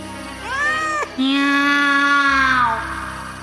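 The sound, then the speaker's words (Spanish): A cat meows twice: a short rising mew, then a long, drawn-out meow that wavers and slowly falls away. Both calls are loud, tonal and high-pitched, with no talking over them. “Qué graciosos se ven uno arriba del otro, dijeron los ojos y luego repitieron un largo miau y se echaron a reír.”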